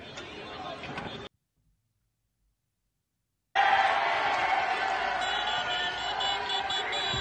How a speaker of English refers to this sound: Taken to the streets. Irish protesters out there in mass.